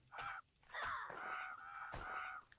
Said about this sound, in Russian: Вот и вороны всякие, вороны.